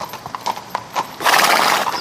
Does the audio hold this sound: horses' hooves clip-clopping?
yes